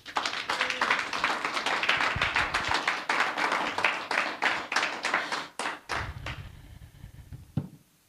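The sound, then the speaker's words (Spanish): A church audience breaks into sustained applause for God during a sermon, dense overlapping hand claps for about six seconds before thinning to a few scattered claps and fading out. “Dale un aplauso a Dios.”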